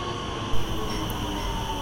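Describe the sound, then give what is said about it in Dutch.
Steady, droning rumble of a metro line A train running on rails toward Binnenhof, arriving at De Rotte station, with a constant hum and a brief bump of louder noise early on, no voices. “U bevindt zich in metrolijn A richting Binnenhof station De Rotte.”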